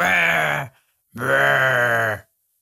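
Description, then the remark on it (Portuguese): A person makes two long, drawn-out monster groans, a voice imitating a monster's growling moan like in the film The Village, loud, with a brief pause between them. “Mas cara-te monstro e vai bater à porta da tua casa. E faz assim uns barulhos.”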